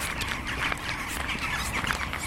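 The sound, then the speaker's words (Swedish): Harsh, rattling magpie chatter breaks out in short irregular bursts over a steady outdoor background hiss, with no one speaking. “Vi hör ju dem i alla fall, de här skatorna.”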